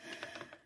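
A quick run of small wooden taps and clicks, ending in one sharper, louder click, as a wooden peg on a solitaire board jumps over another peg and drops into an empty hole, making one move of the game.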